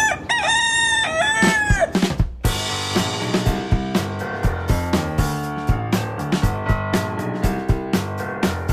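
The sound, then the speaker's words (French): A rooster crows once, loud, a long harmonic call lasting about two seconds, before an upbeat rhythmic music track with a steady beat takes over. “Cocorico Kikiriki”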